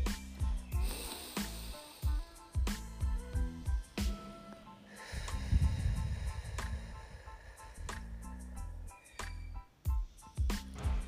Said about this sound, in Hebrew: בואו ניקח נשימה עמוקה מהאף וננשוף דרך הפה.